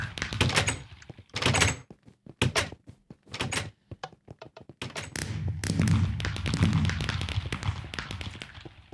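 A video game door opens and closes with a series of solid thunks and clacks, followed by a longer mechanical rumble as it slides, loud with no talking.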